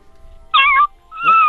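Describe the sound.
A person imitates a small cat with two short, high-pitched meows in quick succession, each a bright, thin wavering tone, fairly loud against a quiet background.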